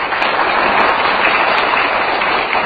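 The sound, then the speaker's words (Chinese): A crowd applauds steadily, with dense overlapping claps forming a continuous, loud wash of sound throughout, and no voices heard. “大家说，哎，鼓掌。”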